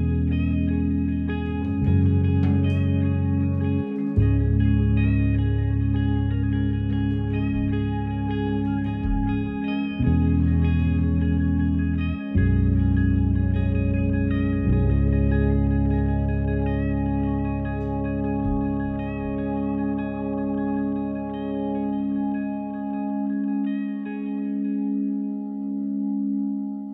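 A hymn sung by a vocal group: slow, sustained chords held for several seconds each, with a full, steady low end and a smooth, effect-laden sheen, moving gently from one harmony to the next.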